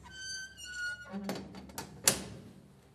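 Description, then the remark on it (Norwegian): A metallic creak or squeal gives way to clattering and rattling, then one sharp, heavy slam rings out and fades with reverberation. It is a heavy prison cell door being swung shut. “Det er noen fæle lyder, Lasse, å høre disse dørene smelle igjen”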